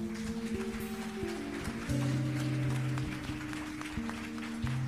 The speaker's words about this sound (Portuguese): Você pode aplaudir ao Rei da Glória?